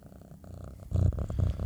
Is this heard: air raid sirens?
no